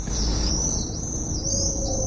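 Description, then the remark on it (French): Shrill, drawn-out screaming calls of common swifts overlap continuously at a steady loudness, with a low rumble of wind underneath and no one speaking. “Et puis il y a un cri quand même, un chant particulier qui n'a rien à voir avec celui de l'hirondelle.”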